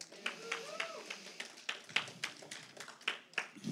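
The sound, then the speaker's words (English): An audience of people who work with kids claps for themselves in a loose, uneven patter of sharp hand claps lasting several seconds, with faint voices murmuring underneath. “So give yourself a big clap that God's choosing you for the kids.”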